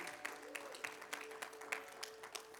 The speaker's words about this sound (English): Come on, y'all give the Lord another hand clap of praise this morning.